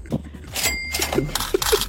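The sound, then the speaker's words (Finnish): A cash register effect marking money paid into a fines kitty: a quick mechanical clatter, then a bright ringing bell tone and a few more drawer clicks and rattles, all loud with no talking. “Toi oli sakkokassaan kassakone.”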